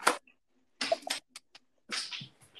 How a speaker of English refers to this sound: all that noise is just my dog, bro.